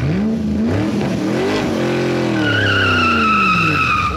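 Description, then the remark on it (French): A Porsche 924 sports car engine revs loudly, its pitch sweeping up and down, as tires break into a sustained high screech partway through, intense with no talking. “il a racheté ma, Porsche. J'avais une Porsche 924.”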